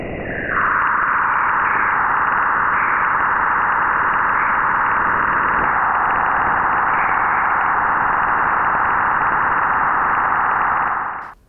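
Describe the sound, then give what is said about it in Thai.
A sonified recording from the Juno spacecraft, a probe exploring Jupiter: a continuous, loud, eerie electronic whooshing tone with a hissing, buzzy texture, holding steady for about eleven seconds before cutting off abruptly, with no voices. “เสียงนี้ครับน่าสนใจไม่แพ้กันครับ เพราะว่าเป็นเสียงของยานอวกาศที่ชื่อว่าจูโน่นะครับจูโน่เนี่ยเขาเป็นยานสำรวจดาวพฤหัสบดีนะครับ”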